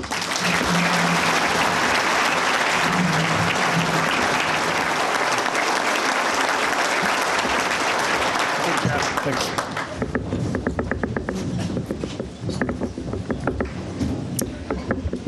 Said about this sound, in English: hope all of you here in Big Ten country will welcome back a Michigan native with a warm round of applause as I invite John Smoltz up to the podium to receive the 2012 Shields Nice Guy Award.